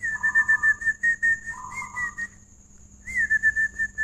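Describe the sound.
A person whistles an imitation of a zebra dove's cooing call: rapid, bubbly pulsed notes at two alternating pitches, in two bursts separated by a short pause, fairly loud with no talking.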